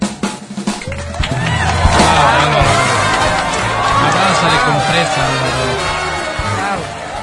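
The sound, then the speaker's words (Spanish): An audience applauds and cheers steadily for about seven seconds to welcome a guest, a dense, loud wash of clapping mixed with high shouts and whoops that keeps going without a break. “Te abrazo solidariamente y te doy la bienvenida con este aplauso.”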